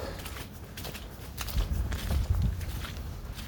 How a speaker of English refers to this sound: I think it's trudging through mud It's quite tiring. Um, slippery feet. So yeah, not as pleasant of walks.